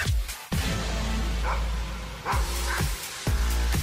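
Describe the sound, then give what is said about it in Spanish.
Several loud barks from a woman's female pet dogs ring out in uneven bursts, a pair coming in quick succession near the end, all over a dense, continuous background wash. “¿Qué dicen tus perros?”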